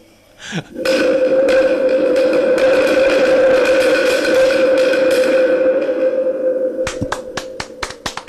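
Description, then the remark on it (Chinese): A wind drum, an instrument with no set name that is made for producing wind sounds, roars out a loud, sustained whoosh like stormy wind before rain, holding steady for about six seconds with a humming tonal edge, then stops, leaving a few sharp clicks. “È come fa il vento, il, eh, un strumento creato similando il vento.”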